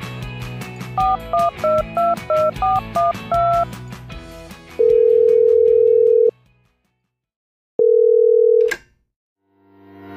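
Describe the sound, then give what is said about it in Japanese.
A quick run of touch-tone dialing beeps, then two long, steady electronic ring tones separated by a short silence, loud, as a phone call connects before a voicemail greeting. “You have reached the voicemail box of New Suto.”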